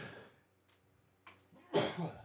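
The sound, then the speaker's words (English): A single sneeze bursts out near the end, preceded by a sharp inhale and a faint breathy catch, otherwise quiet. “Bless you.”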